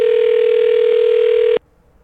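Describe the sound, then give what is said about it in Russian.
A loud, steady telephone ringing tone of a call to the Belarusian ambassador in Slovakia sounds alone as a single unbroken beep lasting about a second and a half, then cuts off abruptly into near silence. “Я напомню, что мы звоним послу Беларуси в Словакии, который подал в отставку.”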